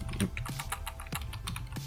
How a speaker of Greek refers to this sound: Ελπίζω να μην ακούγεται πολύ το τσίκι τσίκι του πληκτρολόγιο. Είναι πολύ κοντά το μικρόφωνο στο, στο πληκτρολόγιο και τώρα το συνειδητοποίησα.